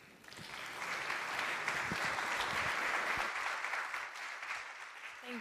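A church audience applauds steadily for about five seconds, a dense, even wash of many hands clapping at moderate loudness that swells quickly and holds before easing slightly at the end.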